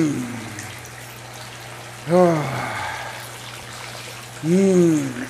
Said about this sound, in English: sucks having that cold water out of the spout splashing on me, too, let me tell you.